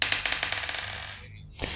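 A die is rolled for a concentration check in a role-playing game and lands on a 10: it rolls across a hard surface in a quick burst of bright clattering clicks that slows and fades over about a second, then one last sharp tap as it settles.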